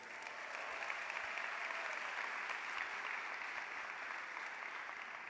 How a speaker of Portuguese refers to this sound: hoje, Dia Internacional da Mulher, uma salva de palmas para as mulheres.